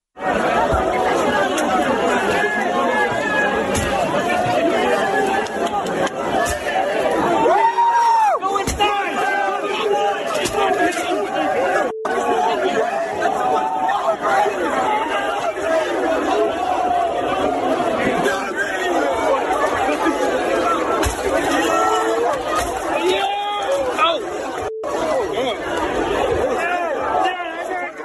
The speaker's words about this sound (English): That kid was far outnumbered by a bunch of idiots kicking the window on the car, rioting like jerks.